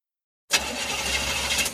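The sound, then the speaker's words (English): After a brief silence, a car engine suddenly cranks and strains to turn over, a loud, grinding whir that keeps churning without catching. No voices. “That sound is every driver's worst fear.”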